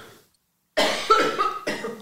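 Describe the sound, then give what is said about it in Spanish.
After a brief silence, someone lets out a harsh, raspy cough, then a second rougher burst right after it. Both are loud and chesty, with no talking. “¿Qué tal la tos que traigo, eh?”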